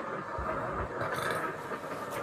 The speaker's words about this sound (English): so, as you guys sleep silently, you were all jolted awake in the middle of the night to the sounds of a raging storm in the distance.